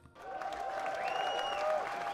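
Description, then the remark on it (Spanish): Steady applause from a crowd starts abruptly and holds at an even level for about two seconds, with a few whistle-like tones gliding above the clapping. “aplausos para este señor, de verdad.”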